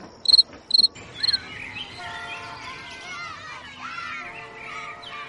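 A pet cricket named Pachimú gives three sharp chirping bursts in quick succession, followed by a softer, continuous wash of warbling background sound.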